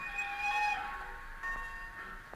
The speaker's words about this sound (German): während der Zug schon langsam davondampfte.